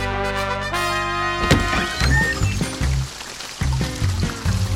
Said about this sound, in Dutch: Een echte ridder moet ook regen kunnen verdragen, muis.